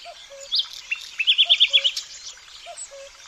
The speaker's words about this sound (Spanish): Los carrizas trinan más atrás, junto a pinzones y verdecillos. Esos sonidos que hoy están cambiando.